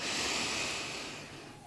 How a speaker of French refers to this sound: Cette respiration, eh bien, pour cela, vous allez commencer par faire une inspiration lente, tranquille, par le nez. Vous inspirez par le nez